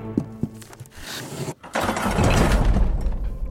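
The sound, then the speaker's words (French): A few soft mechanical clunks, a brief pause, then a loud, sustained grinding rumble as a secret passage mechanism, triggered by pulling a book on a library bookshelf, slides open, heavy and low throughout. “Un passage secret.”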